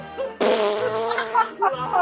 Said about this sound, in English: I haven't heard, I haven't heard a … fart.